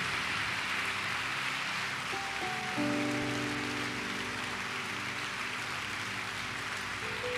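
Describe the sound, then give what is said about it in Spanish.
A church audience applauds God in a steady, dense wash of clapping for the whole stretch, and sustained keyboard chords enter partway through and hold beneath the applause. “Apláudale a Él.”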